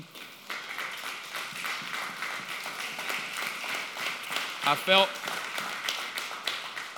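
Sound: audience clapping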